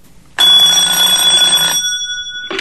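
A telephone rings loudly with a harsh, metallic bell for over a second, stops briefly, then starts ringing again at the end; it is an incoming call from the wife at home. No one speaks.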